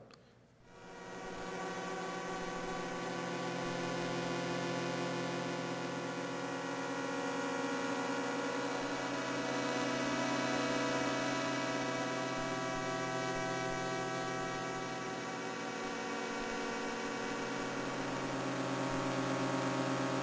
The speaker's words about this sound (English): And then here's another group of pulsars in a place called 47 Tuc in the constellation of uh, Tucana. So let's hear that one.